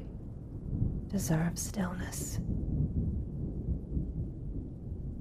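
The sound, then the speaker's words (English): A low, continuous rumble of rolling thunder fills the background throughout, steady, while a soft whispering voice speaks briefly near the start. “Let my words flow through you as the thunder rolls in.”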